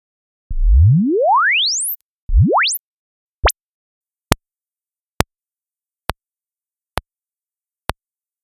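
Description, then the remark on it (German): A rising exponential sine sweep repeats, each pass played faster and far shorter than the last, from a long upward glide to quick whoops and finally a string of sharp, impulse-like clicks, evenly spaced and clear, with no voices. “Und jetzt spielen wir euch den Sweep etwas schneller und nochmal etwas schneller ab.”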